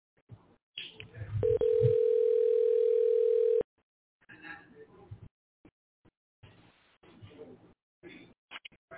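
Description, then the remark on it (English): A few short clicks, then the loud, steady electronic ringing tone of an outgoing phone call holds for about two seconds and cuts off, followed by faint, muffled voices over a thin telephone-like line. “Let's, let's try, to call him one more time.”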